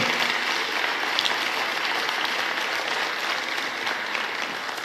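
An audience at a Christian church service applauds steadily, a dense wash of many hands clapping at once, loud and sustained for the whole stretch with no voices standing out.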